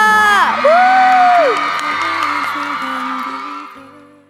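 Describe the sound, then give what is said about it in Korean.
A large crowd cheers and claps loudly on the radio show Lee Eun-ji's Gayo Gwangjang, with high whoops and shouts rising above a dense roar that holds steady before fading out at the end. “여러분 행복한 미래를 위해 힘차게 걸어 들어오는 광고에게 응원의 박수 부탁드립니다.”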